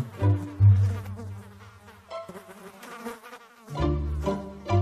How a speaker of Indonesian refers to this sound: Lalat-lalat mendengung di mata domba-domba kecil. Lalat-lalat terbang ke hidung domba kecil.